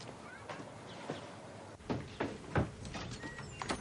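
A fax machine printing an incoming page: steady mechanical whirring with repeated clicks and short rasping feed strokes, moderately loud and alone, without voices.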